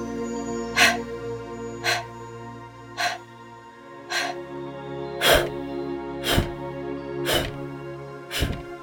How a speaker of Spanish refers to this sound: El Kabbalah es una respiración donde se va a inhalar por la nariz y vamos a exhalar por la boca así.